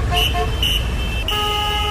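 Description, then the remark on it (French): Car horns honk in an early-morning traffic jam in Abidjan: a few short toots, then a long sustained blare, loud over a low rumble of idling engines. “Hein, euh, dans toutes les capitales du monde, de bonne heure comme ça, ça bouchonne.”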